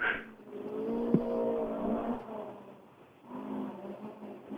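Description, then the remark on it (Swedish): A rally car engine roars and revs on a rally stage out in the forest, its pitch climbing and dropping through the gears, easing off briefly before surging again, loud with no talking. “Ja, härlig rallysång ute i skogen.”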